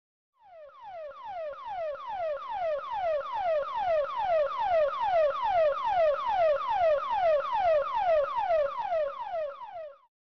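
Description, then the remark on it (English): An emergency locator transmitter alert tone, as heard on the VHF aircraft emergency frequency (GUARD) when the transmitter is activated: a loud, steady stream of falling whistle-like sweeps, roughly two per second, repeating for about ten seconds with no voices. “While 406 MHz is the satellite frequency, the following is what you'll actually hear on the VHF and UHF when an emergency locator transmitter is activated.”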